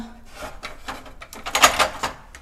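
A kitchen drawer slides open and shut as an item is put away in it, a string of wooden scraping and rattling bursts that swell to a louder clatter toward the end, with no talking.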